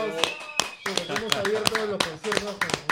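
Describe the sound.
Scattered, irregular hand claps from an audience ring out as sharp bright snaps, mixed with a voice talking over them throughout, as applause is called for the people of Belón.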